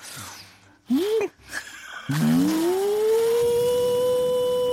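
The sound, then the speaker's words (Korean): A voice imitates a vacuum cleaner as a cleaning cheer, starting with short rising whoops, then a long steady whirring hum that holds at one pitch for several seconds, loud. “어, 근데 진짜 약간 청소기 같으네.”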